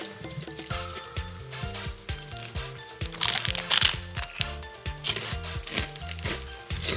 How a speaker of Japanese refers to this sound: そうバランスがいいあのほんとね中間なんですよあの軽さも味のバランスも中間でサクサク食べれちゃう